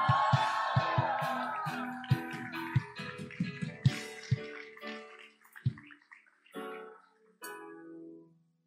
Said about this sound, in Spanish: ¿Cuánto lo creen? ¿Cuánto lo creen? De un grito de victoria.